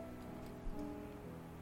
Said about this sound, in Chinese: 我们感觉已经在这棵树下待了好久，为什么一直下雨嘞？